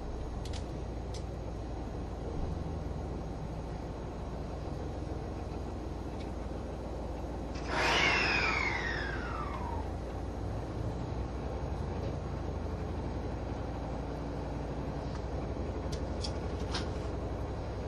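A hybrid express train's engine and motor hum steadily from inside the Green Car of an HC85 series Limited Express Hida No. 1 running from Nagoya to Takayama, Japan: a low continuous rumble with a brief whining sweep that fades partway through; no one speaks.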